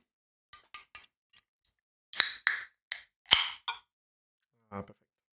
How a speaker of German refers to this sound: Ich äh, mache natürlich drei Klopfer.